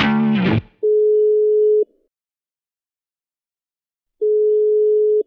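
A telephone ringback tone while calling MSB: two long, steady, mid-pitched beeps about a second each, separated by a few seconds of silence, after a short burst at the start.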